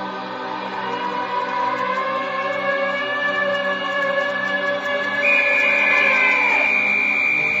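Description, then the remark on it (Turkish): A police whistle blows at night from Durantin street in one long, continuous shrill tone, fairly loud and steady, jumping higher in pitch near the end before cutting off. No voices are heard. “Düdük sesi değil mi bu? Evet. Evet bizim polis düdüklerinden biri komiser.”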